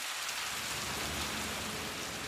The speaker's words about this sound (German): Es regnet in Strömen und beide laufen unter einem großen Regenschirm durch Westerpro.